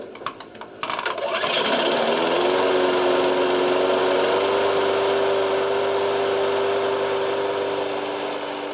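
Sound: lawn mower engine running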